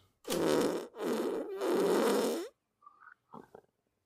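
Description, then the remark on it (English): Three loud, drawn-out raspy farts blare one after another with brief gaps, followed by a couple of faint, short squeaky sputters trailing off at the end. “Today we're talking about farts.”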